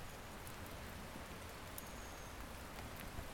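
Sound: heavy rain falling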